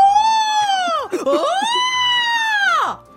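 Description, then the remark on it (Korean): A person imitates a water deer's scream with one long, loud, strained shriek, broken by a brief raspy catch partway through and trailing off at the end, with no talking. “저번에 박명수 라디오 들어보니까 사람들이 고라니 성대모사 하는 게 기가 막히더라고. 이거는 어려울 것도 없어 아들. 그냥 냅다 소리 지르면 돼.”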